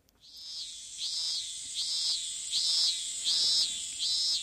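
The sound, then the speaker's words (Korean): Loud cicadas chirr outdoors on hospital grounds in a steady, shrill drone that swells into rhythmic pulses about once a second, constant with no voices. “우린 매미 소리 드높은 병원들로 나왔습니다.”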